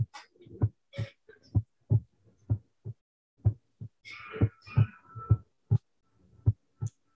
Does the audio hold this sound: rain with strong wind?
no